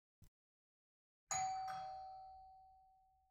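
A hotel room intercom doorbell chimes once with two quick ding-dong tones, ringing out clearly and fading slowly, preceded by a faint brief click. No one speaks.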